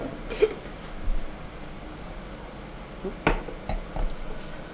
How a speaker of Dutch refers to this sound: En nou ja, proost. Laten we eens, laten we proeven, zou ik zeggen. Proost geluid? Ja, precies, voor het geluid.